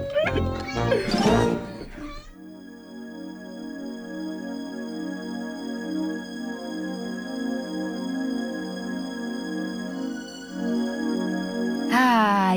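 A cat meows loudly near the start and again at the very end, with a steady droning musical tone holding in between.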